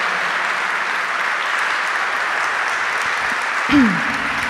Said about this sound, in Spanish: Dale un aplauso fuerte, fuerte al Señor.